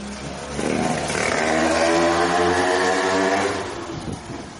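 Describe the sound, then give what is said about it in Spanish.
A motorcycle engine rises and swells as it passes by, holding a loud, buzzing drone for a few seconds before fading slightly, with no talking. “Hemos dejado pasar la moto.”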